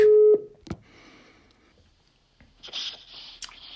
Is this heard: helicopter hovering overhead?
no